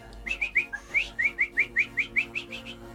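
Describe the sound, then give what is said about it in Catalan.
Someone whistles an imitation of birdsong: a quick, steady series of about a dozen short, bright rising chirps, clear, with no talking over it. “Escaribes, corbe, escaribes i així tres discos sencers d'ocells.”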